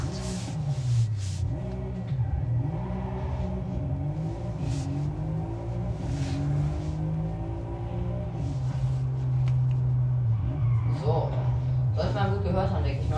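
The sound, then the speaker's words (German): A deep, rumbling V8 car engine in a racing game revs up and down continuously, its pitch rising and falling in long sweeps, loud and steady, with a few harsher higher-pitched bursts near the end. “Schöne V8.”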